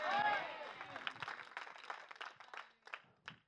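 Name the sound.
audience clapping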